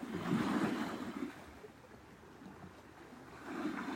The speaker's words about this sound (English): taking in the sound currents, Gitchigami, the big lake.